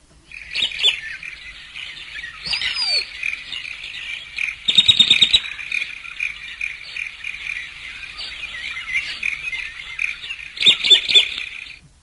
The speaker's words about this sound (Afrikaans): Nou hy het 'n gewone kokkie, nou almal ken tog die ou kokkie se geluid.